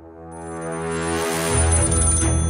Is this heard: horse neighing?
no